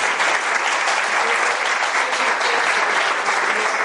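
Steady, dense audience applause, many hands clapping at once in a loud, even wash of sound that holds constant without pause for the whole few seconds.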